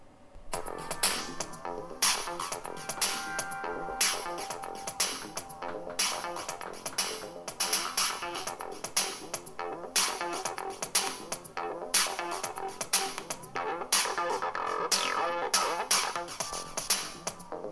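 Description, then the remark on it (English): Upbeat electronic music generated by a music app plays continuously with a steady rhythmic pulse, bright synth tones and crisp percussive hits, fairly loud, with no voices. “now coming to the fourth app which was mubert so the music on that actually sounds something like this”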